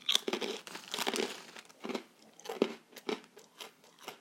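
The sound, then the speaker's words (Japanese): Crisp crunching of senbei (Japanese rice crackers) sent from Japan being chewed, a run of irregular bites and crackles with brief pauses between them, no voices. “咀嚼音”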